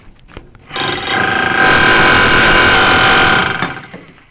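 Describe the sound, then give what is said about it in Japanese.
A loud, sustained power-tool roar with a harsh grinding, chattering edge as tiles are stripped from an apartment building's exterior wall the conventional way during renovation work, starting after a few faint knocks and running steadily for about three seconds before tapering off. “マンションの外壁なんかをこう、えー回収工事で剥がしますよね、タイルを。タイル剥がす。”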